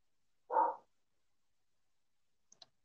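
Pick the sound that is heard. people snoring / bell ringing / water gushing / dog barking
dog barking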